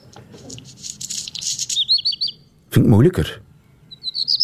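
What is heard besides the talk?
black redstart song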